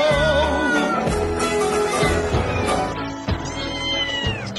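Loud, drawn-out cat meows and yowls, wavering up and down in pitch, layered over a dense, busy backdrop with a steady low pulse, continuing without pause for several seconds.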